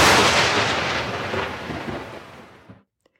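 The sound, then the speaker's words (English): A loud thunderclap from a lightning strike bursts at once and rolls off into a rumbling decay over a few seconds before cutting to silence, with no voices present. “Or maybe you have seen the speed of light as in lightning strikes while in dark thunderstorms.”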